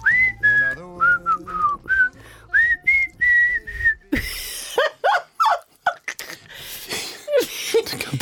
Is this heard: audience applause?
no